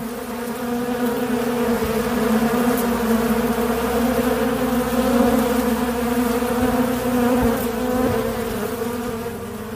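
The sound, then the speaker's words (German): A dense, steady hum of many honeybees buzzing together around their hive, loud, holding an even drone throughout with no voices. “Auf lange Sicht werde ich äh, aber weiter lernen von den Bienen und gucken, wie weit man äh, weitergehen kann, wenn man die, die, ihr Nest, also ihre Kiste, in der sie leben, weiter klimatisch optimiert, ob man nicht auch dann irgendwann auf diese”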